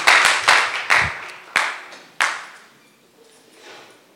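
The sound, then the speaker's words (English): A church audience claps for Jesus while taking their seats, in a few loud, uneven bursts of sharp hand claps that come every half second or so, then fade into a softer murmur of scattered claps and rustling. “Why don't you clap for Jesus as you take your seats?”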